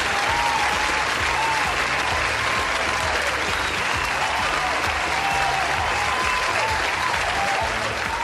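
Applause sound effect: sustained applause from a crowd, a dense, steady wash of many hands clapping at an even loudness for several seconds, with faint cheering or voices mixed in.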